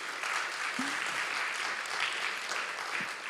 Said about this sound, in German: ja, können wir eigentlich mal einen Applaus geben.